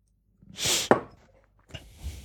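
Leftover water is shaken out of a freshly cleaned drinking glass: a brief splashy whoosh ends in a sharp knock, followed by a quieter rustle. Fairly loud, with no talking.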